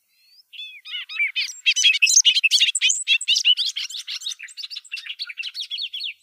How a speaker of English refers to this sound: Um, and the bobolink call isn't something I was familiar with, so I've I've looked it up online, and we can play a little bit of it now.